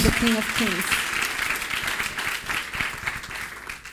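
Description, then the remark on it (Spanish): An audience breaks into loud, sustained applause for the King of Kings, a dense wash of many hands clapping steadily for several seconds, with a brief voice heard at the very start. “Ahora sí, déle ese fuerte aplauso al Rey de Reyes.”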